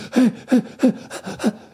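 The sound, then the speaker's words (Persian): A person imitates the rapid panting of running dogs, five quick breathy pants in a steady rhythm, fairly loud with no words. “مثل سگ هایی که در حال دویدن نفس نفس میزنن”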